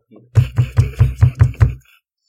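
A quick run of seven loud, evenly spaced, solid-sounding knocks on a door, rapping in a steady rhythm for about a second and a half before stopping.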